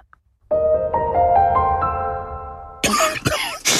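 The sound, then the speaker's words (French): A man with a viral illness coughs three times in quick, harsh, rasping bursts, right after a steady tonal sound fades out. The coughs sound rough and sick. “Ça, c'est … qui a chopé un vilain virus juste avant l'anniversaire de son petit-fils.”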